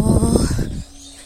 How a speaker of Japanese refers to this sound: すっごい鳥。